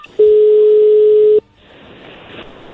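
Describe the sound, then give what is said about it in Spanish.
A telephone ringback tone from a phone call being dialed sounds once as a single loud, steady mid-pitched beep lasting just over a second, then cuts off, leaving a faint hiss on the line. “Ah, ok, bueno, ahí se está marcando ya.”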